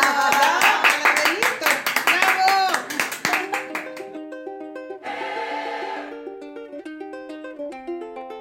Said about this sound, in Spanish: Vamos con un aplauso.